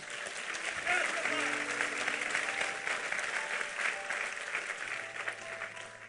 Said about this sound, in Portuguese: Vamos aplaudi-lo porque ele é bom.